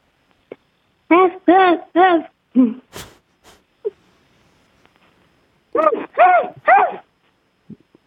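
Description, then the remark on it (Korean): A child's voice imitates the biggest kind of dog barking, heard over a phone call to a radio show, with three or four quick woofs, a short pause, then three more. The barks are fairly loud. “대형 대형 대형 강 가장 큰 강아지?”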